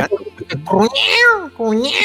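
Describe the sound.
A person vocally imitates a cat, producing a drawn-out, rising and falling meow followed by a second shorter one, fairly loud after a few quick syllables.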